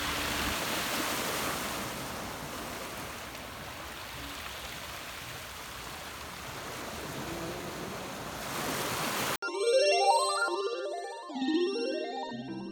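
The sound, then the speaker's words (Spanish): Ocean waves wash steadily onto a beach in a continuous, full roar for about nine seconds, then the surf cuts off abruptly and bright music begins. “Es por eso que espero que cuando toda la situación se vuelva a regularizar, espero poder regresar a las hermosas, a cualquiera de las hermosas playas que hay en México.”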